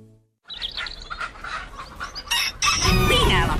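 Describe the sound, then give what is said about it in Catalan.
A Penedès rooster, for the Fira del Gall in Vilafranca del Penedès, crows loudly, its long strained call rising near the end, with clucking and chirping fowl around it and a busy farmyard bustle in the background. “Els dies 15 i 16 de desembre descobreix el Gall del Penedès.”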